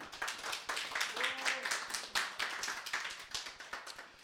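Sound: audience clapping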